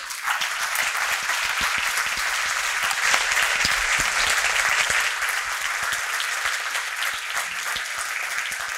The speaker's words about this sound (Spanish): Así es que me gustaría empezar pidiéndoles un aplauso para todos estos artistas.